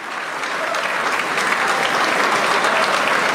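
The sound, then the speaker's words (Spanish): Sustained audience applause for Bukele's announcement, a dense crackle of many hands clapping that holds steady and swells slightly louder over a few seconds, with no voices standing out. “Más aplausos.”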